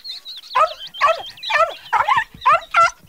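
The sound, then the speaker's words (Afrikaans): A dog barks in a quick, excited series of about six high-pitched yaps, fairly loud, with no voices around it. “die muis en hy en die hond hardloop na meneer De Beer toe en hulle maak 'n groot lawaai”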